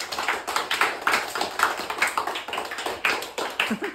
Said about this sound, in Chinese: 一百分，大家鼓掌。